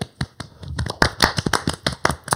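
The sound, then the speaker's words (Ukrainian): A few people clap their hands together in a quick, uneven burst of applause, sharp claps overlapping and growing louder after a softer start, with no one speaking. “Аплодируем тебе”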